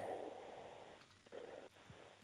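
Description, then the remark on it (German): Heavy breathing over a phone line: two or three breathy exhalations with rustly hiss between them, muffled and thin, with no one speaking. “Da höre ich nur ein lautes Atmen.”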